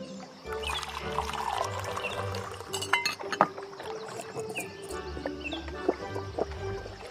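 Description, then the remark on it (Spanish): China cups clink against each other in several bright, scattered taps while tea is poured with a steady trickle beside a river, over a low outdoor background rumble. “Y a veces les gusta simplemente tomar el té junto al río.”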